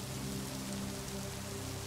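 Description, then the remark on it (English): Steady rain patters on a surface, a dense wash of soft tapping drops with no distinct pauses, even in level, with a faint low hum underneath. “Each tap from the raindrops clears your mind further”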